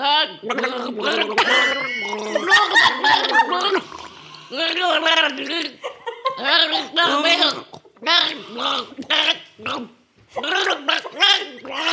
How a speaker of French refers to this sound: Bah, avec un gargarisme du coup.